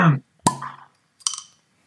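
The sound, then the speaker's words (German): A beer bottle is opened: a sharp pop with a brief ringing tone, then a short fizzing hiss of escaping gas a moment later. “Ja, da muss man nämlich einfach auch mal ein Bier öffnen.”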